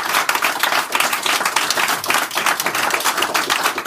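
A crowd applauds steadily, many hands clapping in a dense, continuous patter that stays loud throughout with no voices breaking through.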